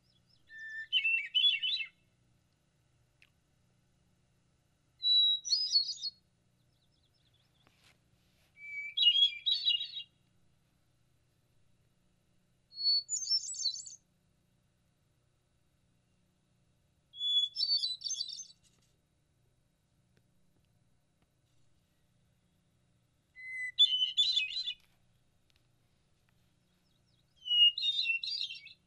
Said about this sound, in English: But uh, so I thought I'd better, just for you to perhaps uh, listen to the hermit thrush call, which is very thrush like, but just a little different. So Let's listen to the hermit thrush.